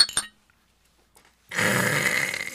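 Drinking glasses clink together sharply in a quick cluster of bright taps as people toast with alcoholic drinks, then fall silent before a steady rushing, hissy noise rises and continues to the end.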